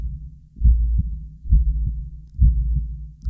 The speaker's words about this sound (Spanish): no sé si ustedes han podido escuchar el ritmo del corazón sano cuando late. Este ritmo no cambia, es inconfundible, pero cuando un corazón está en angustia, estresado, suena totalmente diferente.